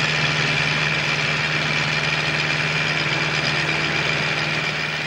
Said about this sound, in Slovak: traktory.